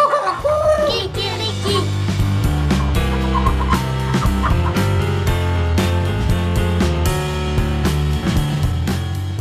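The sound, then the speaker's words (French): A rooster crows once at the very start, loud, then quickly gives way to a bright, rhythmic musical tune that plays steadily to the end. “Cocorico Kikiriki”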